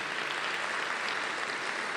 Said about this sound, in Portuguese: Dê um aplauso a Ele. Isso é poderoso.